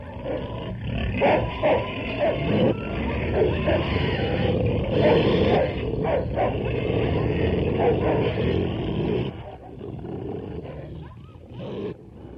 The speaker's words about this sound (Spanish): Cuando terminaron su confesión, los perros, sin perder tiempo, les desgarraron las gargantas.